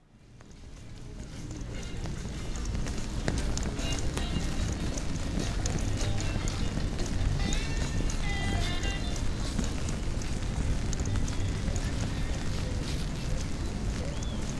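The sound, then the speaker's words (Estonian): Spring rain in a city patters on an umbrella overhead, a dense, steady crackle of tiny taps that swells in over the first seconds and then continues evenly with no one speaking. “kevadvihm linnas. Te kuulete, kuidas vihm krabiseb äh, vihmavarju vastu.”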